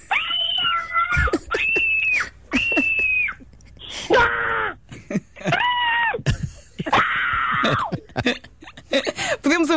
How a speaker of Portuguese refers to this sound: eu acho que tens aí, tens aí uns gritos que foram extraídos deste site. Vamos a ver, sim.